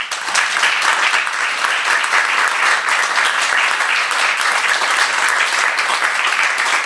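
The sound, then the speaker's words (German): A crowd at an event claps steadily and loudly for two people being thanked, a dense sustained wash of applause lasting the whole few seconds without pause or spoken words. “Ihr dürft applaudieren.”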